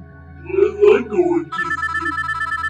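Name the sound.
telephone ringing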